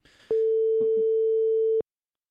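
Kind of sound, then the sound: signal or alarm, phone call ringback tone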